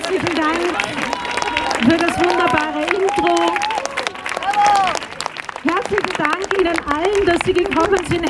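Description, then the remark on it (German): An audience applauds waltz dancers at an event, dense clapping sustained throughout, with cheering and voices calling out over it, all fairly loud and continuous. “Nochmal einen Applaus unseren wunderbaren Walzer-Tänzerinnen und Tänzern,”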